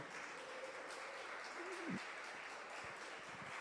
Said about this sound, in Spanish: Y voy a contarles algo muy interesante porque en 15 días vamos a estar estrenando la sede de la Gran Comisión. ¿Por qué no le damos un aplauso al Señor?